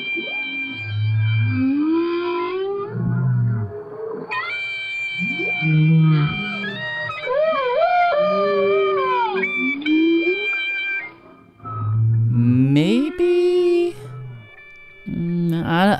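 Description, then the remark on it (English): A whale sings a run of moaning, harmonic calls, some bending in pitch and others held as long steady tones. Several sustained notes ring out clearly and fairly loud, with brief pauses between phrases. “the whale kind of extends the note. Whales tend to go ooh, and clarinets tend to go ooh.”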